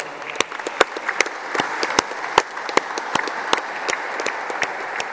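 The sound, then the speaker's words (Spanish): Sustained crowd applause for the governor of Sonora, Claudia Pavlovich, with many overlapping hand claps, a dense steady wash punctuated by sharper individual claps, moderately loud and without any speech over it. “Vamos a seguir adelante con este propósito y agradecerle mucho a la gobernadora de Sonora, Claudia Pavlovich, que le quiero dar un aplauso.”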